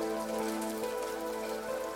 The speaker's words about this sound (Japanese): それにしても今日の雨はやたら冷たく感じるな